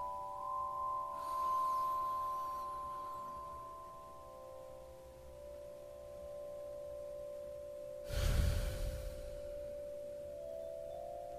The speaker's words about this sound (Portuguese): Vamos fazer três respirações profundas positivas ou seja, retenha o ar no pulmão por alguns segundos, solte e repita essa respiração por três vezes, como vou fazer agora.